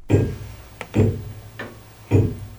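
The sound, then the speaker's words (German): Slow, heavy ticking of the fully mechanical, hand-wound tower clock movement of the parish church St. Quirin in Wolkertshofen near Nassenfels, district of Eichstätt, Germany, running since 1925, with deep clunks about once a second and lighter clicks in between, fairly loud, with no voices. “Sie tickt noch richtig. Die Turmuhr in der Pfarrkirche St. Quirin in Wolkertshofen.”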